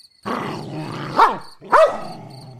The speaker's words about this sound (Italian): Il cane non mi riconosce. Si lancia contro di me abbaiando, mostrando i denti e rizzando una cresta di peli grigi sul collo.